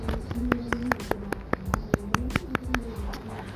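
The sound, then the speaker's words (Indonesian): Hands clap sharply about a dozen times at a quick, fairly steady pace, crisp, over a soft continuous background murmur. “Tepuk tangan yuk.”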